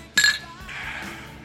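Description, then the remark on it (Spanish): Glasses clink together once in a toast, a bright ringing chime that fades quickly and leaves a soft background hum, with no talking. “hay que brindar, digamos, salud por nosotros y por Jules Bianchi”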